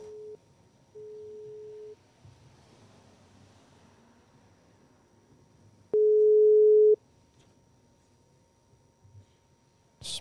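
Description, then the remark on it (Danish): A telephone ringback tone while calling a reporter: steady, electronic beeps, each about a second long, with long pauses between. The third is the loudest. Faint line hiss fills the gaps, and nobody speaks. “Om man tager telefonen.”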